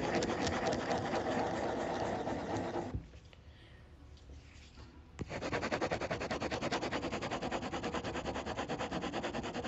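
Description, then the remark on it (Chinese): A ballpoint pen scratches round and round on paper in steady, rhythmic strokes, pauses briefly, then resumes circling with a fast, even scratching texture. “我现在在换一支笔，我现在拿的是一支原子笔，我来画一些圈圈”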